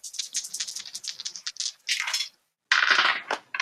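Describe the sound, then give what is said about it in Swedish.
Dice clatter and rattle across a hard surface as players roll them in a game, with extra dice added by modifiers, in quick clicking bursts, pause briefly, then tumble again in a louder final roll. No one speaks. “Då kan alla få slå och så får ni slå då med de modifikationer som just ert val ger.”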